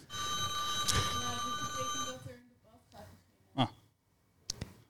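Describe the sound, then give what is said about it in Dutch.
A loud electric bell rings continuously for about two seconds to announce that a debate is starting, a sustained metallic tone, then cuts off, leaving faint voices and a few short sounds. “We er hebben bellen, jongens.”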